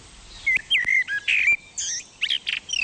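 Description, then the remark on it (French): A bird sings a lively, varied song of quick whistled phrases and chirps, clear, with short pauses between bursts over a soft background hiss. “Mais il y a un chant d'oiseau qui me redonne foi en l'avenir.”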